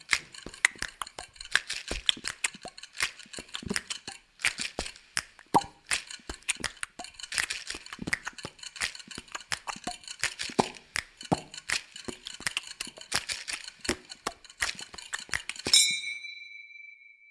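Busy bar clatter: dishes, glasses and cutlery clink and knock in a dense, irregular stream of sharp bright hits, with no voices, ending on one clear ringing chime that fades out.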